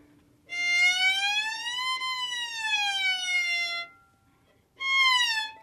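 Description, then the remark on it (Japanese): A violin imitates a cat's meow: a long bowed note slides up and then down, followed by a shorter second meow-like glide, with no talking. “こういうふうにあの、うん、猫の鳴き声もできますし”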